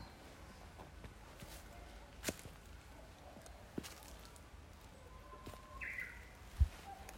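Faint birdsong in a quiet outdoor setting, a short warbling call rising out of soft background hiss, with a few scattered clicks and rustles.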